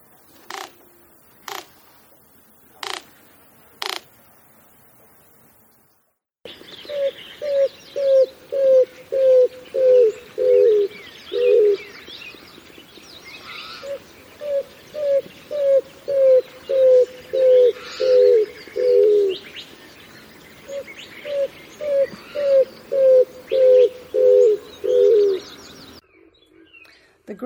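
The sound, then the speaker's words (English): Greater roadrunner, a ground-dwelling bird of the Southwest, 20 to 24 inches long, calls: four sharp clacking sounds, then three runs of low, dove-like coos, each run a steady series of about eight notes falling slightly in pitch, clear against faint outdoor background. “So I have the greater roadrunner.”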